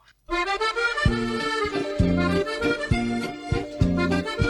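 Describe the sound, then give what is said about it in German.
A short riddle-segment jingle with bright sustained tones over a steady bouncing bass pattern that repeats four times, loud and clear with no talking over it. “okay, dann lassen wir kurz hier Dingens abspielen, den, äh, den, und dann, äh, wunderschöne Rätselsound, und dann äh, kommen wir zu den Rätseln.”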